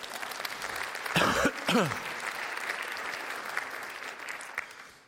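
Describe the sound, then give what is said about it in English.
A crowd applauds the Life U students steadily for several seconds, a dense wash of clapping that stays fairly even, with a couple of brief cheers or whoops rising above it early on. “My hope, we can applaud the students, these guys are legends.”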